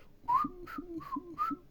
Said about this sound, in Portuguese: Aquele cara que vai no mercado e. assobiando uma música de jazz. Ele vai.